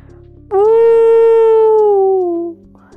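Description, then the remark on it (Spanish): An owl's single loud, drawn-out howling wail rises suddenly as it screams as loud as it can, holds steady for about two seconds, then sinks slightly in pitch and cuts off, eerie and sustained against a quiet background. “Cuando ya no soportó más, ah, aspiró profundamente y gritó tan fuerte como pudo.”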